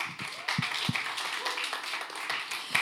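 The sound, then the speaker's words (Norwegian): A small group claps hands in a short burst of applause for a girl, the sharp claps loose and overlapping, moderately loud for a few seconds. “Da må vi klappe”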